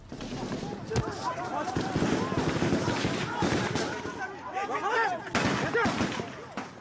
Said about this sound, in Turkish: Kalabalığın arasına karışan farklı noktadaki dört kişi daha önce bölgeyi gizledikleri Kalaşnikovları aldılar ve birden silahları protokol platformuna doğrultup tetiğe bastılar.